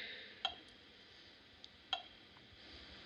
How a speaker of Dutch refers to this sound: Hij tikt de tijd weg. Vier seconden duurt het dus voordat het document ingescand is. Ik heb even mee staan tellen.